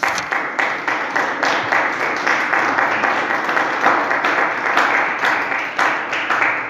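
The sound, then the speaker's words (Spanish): A church audience applauds the Lord during a sermon, steadily for several seconds, a dense, sustained wash of many hands clapping with no one speaking over it. “Le dan aplauso al Señor, ¿verdad?”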